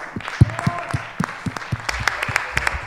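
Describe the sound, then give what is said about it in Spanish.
Applause from a crowd welcoming the person called up to draw a raffle, with many hands clapping in a dense, irregular patter, some individual claps standing out sharply, steady and moderately loud for a few seconds. “un aplauso, por favor.”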